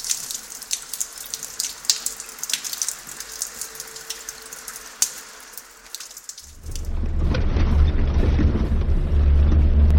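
Steady rain patters and hisses for several seconds, then shifts abruptly into a heavier, deeper downpour with a rumbling low roar, as if heard from a different spot. No voices.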